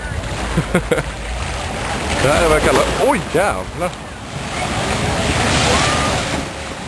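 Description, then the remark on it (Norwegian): A steady, broad roar of rushing tsunami floodwater surging and rising at a beach throughout, with wind buffeting the microphone and a man talking and exclaiming excitedly over the noise. “Vannet fortsetter å fosse og stige.”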